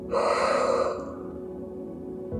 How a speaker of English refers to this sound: Let's take a few deep breaths together. Breathing can help us get our bodies ready to listen to that furry monster. Breathe in and out.